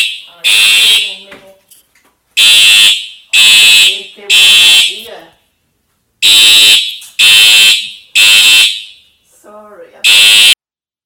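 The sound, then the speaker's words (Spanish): A loud fire alarm blares in repeated harsh bursts, each roughly half a second to a second long, with brief gaps between them and some faint voice murmuring in the pauses. “Alarma consta incendio. Voy a desconectar un momento. Seguramente es falsa alarma.”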